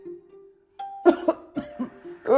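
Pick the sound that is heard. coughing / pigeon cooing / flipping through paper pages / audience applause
coughing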